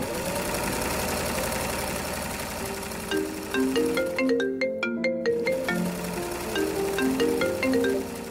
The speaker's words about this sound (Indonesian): Terdengar dering ponsel, telepon masuk